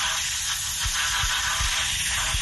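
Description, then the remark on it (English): A steady, bright hiss of dental water spray as a dentist rinses out a tooth after drilling out the old filling, continuous for a few seconds, with soft low thumps pulsing underneath about every half second. “I'm washing it out now.”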